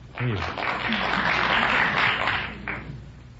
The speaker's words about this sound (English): Some people out there from Fond du Lac were applauding.